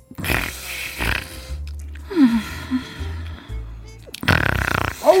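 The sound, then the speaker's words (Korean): A person mimics loud snoring with their voice, imitating a sleeping woman passenger on a bus at a rest stop. Several rough, rumbling breaths in a row with short pauses between, fairly loud, with no other talking. “코를 골고 있었습니다.”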